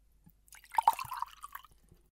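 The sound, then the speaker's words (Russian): Water pours briefly into a glass, a short burst of bubbly, gurgling splashes lasting about a second, fairly quiet, with no voices. “Прошу вас, глотните воды.”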